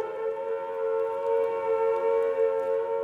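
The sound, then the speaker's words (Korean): A steady noon siren wails continuously throughout, a sustained tone with rich harmonics holding at an even, fairly loud level, heard on its own without any voices. “이때 뚜 하고 정오 사이렌이 울었다.”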